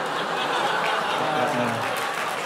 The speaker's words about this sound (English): Wait, that's not that's not clap worthy. You don't you don't clap for that.